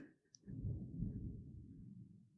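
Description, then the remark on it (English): A low, deep rumble of thunder follows a flash of lightning and rolls in after a brief quiet moment. It builds quickly, then grumbles steadily and heavily for a couple of seconds. “Oh, I saw the lightning. It's gonna, it's gonna be super loud now.”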